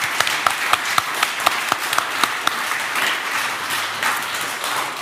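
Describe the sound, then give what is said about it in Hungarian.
An audience in Székesfehérvár, Hungary, applauds both participants at the end of a live debate, many hands clapping in a dense, steady wash with a few sharper individual claps standing out early on, continuing at an even level throughout. “A közönségtől egy nagy tapsot szeretnék kérni mindkét résztvevőnek.”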